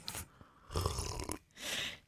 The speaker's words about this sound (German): Das hasse ich übrigens, wenn jemand schlürft. Deswegen mache ich es.